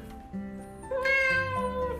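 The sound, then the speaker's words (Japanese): A cat gives a long, drawn-out meow, its tone wavering and rising partway through before trailing off, with no talking over it. “たまになんか鳴き声がめっちゃ長い時ありますよね。”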